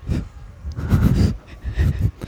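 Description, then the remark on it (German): A few short, breathy puffs of air blown in uneven bursts as someone blows out birthday candles, with no talking. “Du musst die Kerzen ausblasen.”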